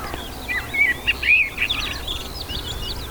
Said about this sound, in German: Hier ist eine Amsel, also eine Schwarztorte. Die Amsel, die Schwarztorte. Genau. ja, der Volksmund sagt, dass es eine Amsel ist. Ne?